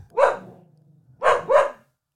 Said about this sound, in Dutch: Wat gebeurt hier? Ja. Frodo die gaat in één keer blaffen. Ja. Een intermezzo.